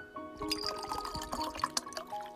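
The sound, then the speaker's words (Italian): Water pours steadily into a glass for a couple of seconds, a continuous splashing gurgle with a faint rising ring as the glass fills; no one speaks. “si attivano nel vostro cervello gli stessi meccanismi di neuroni specchio che si attiverebbero se a versare il bicchiere d'acqua foste voi.”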